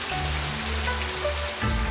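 Steady light rain patters outside a window in Yangzhou, China, heard from a window seat during morning tea, a soft, continuous hiss with scattered drops and a low hum underneath; no one speaks.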